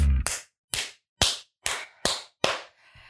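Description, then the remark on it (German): A single person claps their hands six times at a steady, slightly quickening pace. Each clap is sharp and loud with a brief ringing tail, and there is no talking. “heute klatsche ich alleine”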